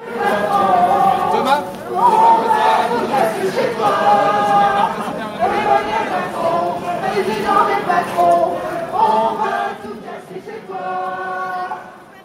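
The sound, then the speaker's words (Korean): Yellow vest protesters marching from Saint-Lazare toward the Champs-Élysées in Paris chant a French song in unison about Emmanuel Macron, president of the rich; many voices rising and falling in a steady sung rhythm, loud and continuous with chatter and bustle. “이게 행진을 하다 보니까 막 잡담을 나누기도 하지만 거기서 구호를 외치기도 하고 노래도 부르고 하잖아요. 그렇죠. 그 중에서 나왔던 노래예요.”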